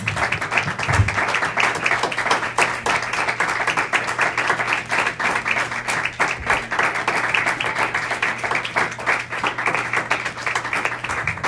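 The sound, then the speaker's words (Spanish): A church audience applauds for the Lord, a dense, continuous wash of many hands clapping at even loudness throughout, with a low steady hum underneath and no voices standing out. “Le vamos a dar ese aplauso más al Rey de la Gloria, hermanos.”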